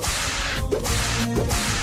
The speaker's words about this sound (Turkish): O bak yoğun akıcılara yani akıcı olanlara kırbaç vuruyoruz daha iyi gitsinler diye.